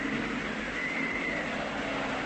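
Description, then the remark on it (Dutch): A heavy truck rumbles steadily in a dense, broad roar, with a faint whine rising briefly through the middle. The loudness holds constant throughout, and no one speaks. “Een vrachtwagen.”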